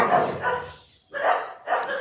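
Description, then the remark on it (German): A dog barks three times, a long loud bark followed after a short pause by two quicker ones, with no other sounds in between. “Es scheint so, als ob er auch ein guter Hundeflüsterer ist.”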